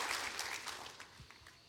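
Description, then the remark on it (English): A church audience on a Sunday morning claps their hands to thank the pastor, a dense, steady patter of many overlapping claps that stays fairly soft and gradually thins out toward the end. “Come on, clap your hands and say thank you, Pastor.”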